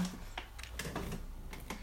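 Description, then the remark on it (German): Several quick, sharp clicks tap out in an uneven rhythm, moderately loud, as keys are pressed on a computer keyboard, with a low hum underneath. “Kurz auf die Tastatur klicken und dann halt ihr nur auf die Maus.”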